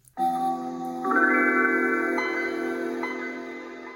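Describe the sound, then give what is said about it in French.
A bright, layered synthesized chime swells in with shimmering tones, building into a warm sustained chord that slowly fades. It's Microsoft's first audio logo, a computer startup jingle in use since 1995, played clearly on its own with no talking. “Toutes les générations n'ont pas forcément connu le premier audio-logo créé par Microsoft.”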